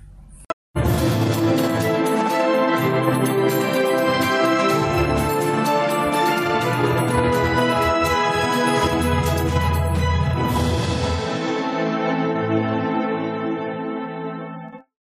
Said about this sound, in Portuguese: roda a vinheta.